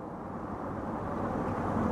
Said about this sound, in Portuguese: aguarda do lado de fora e avista o carro de seu irmão se aproximando.